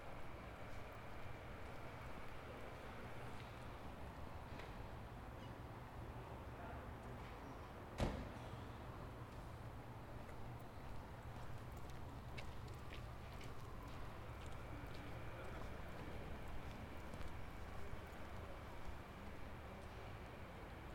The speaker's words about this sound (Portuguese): Houve-se apenas poucos, leves e rápidos passos na calçada, e uma viatura que limpa as ruas agora vazias.